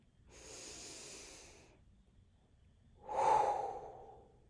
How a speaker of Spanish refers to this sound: Siento que hace muchísimo tiempo no me siento a grabar un episodio, así que nada, tomémonos una respiracióncita profunda y empecemos porque este capítulo va a estar bueno.